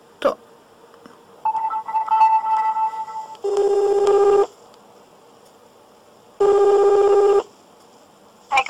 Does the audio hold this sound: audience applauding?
no